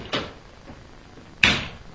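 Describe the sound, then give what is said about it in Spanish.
A locked door is forced open by someone leaving: a first rattling knock, then about a second later a louder, sharp bang that fades quickly. No one speaks. “Jenny fuerza la puerta y se va.”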